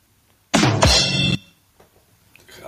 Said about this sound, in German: Das war jetzt ein Drums. Ich weiß nicht, ob man das gehört hat. Natürlich hat man das gehört.